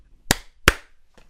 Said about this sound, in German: Zur Aufnahme! Man hat dein Klatschen gar nicht gehört.